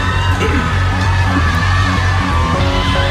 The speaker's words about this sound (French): Donc déjà, applaudissements.